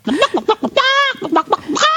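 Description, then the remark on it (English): A chicken-clucking sound-effect button plays: a quick run of short, choppy squawks, then one drawn-out, rising cackle before more brisk clucks follow, loud throughout. “you get the chicken.”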